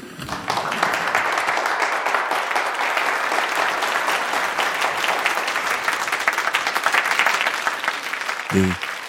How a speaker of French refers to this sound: Les applaudissements frénétiques se transformant en ovations éclatent dans la salle. Pendant trois, quatre, cinq minutes, ils persistent et continuent à se transformer en ovations. Mais déjà, les mains commencent à faire mal.